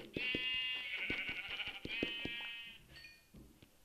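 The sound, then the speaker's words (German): A lamb bleats in a long, wavering, high-pitched cry lasting over two seconds, with a few soft thumps and shuffling sounds underneath and a faint shorter call at the end. “Baby Schaf.”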